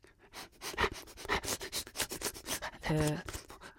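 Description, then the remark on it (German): A person sniffs rapidly and repeatedly, imitating a dog snuffling around while tracking a beeswax candle by smell, with a brief voiced whine or hum breaking in near the end. “Mit meiner feinen Nase habe ich die Witterung nach meiner Kerze aufgenommen und ich rieche Bienenwachs.”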